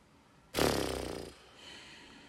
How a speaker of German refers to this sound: ich bin echt gespannt, ob man die Hundegeräusche hört im Podcast